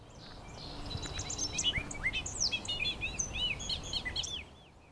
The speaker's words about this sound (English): No bird sounds quite like the bobolink. In fact, not much of anything sounds like the bobolink. My best go to comparison is the gibberish one might hear when playing an old damaged compact disc.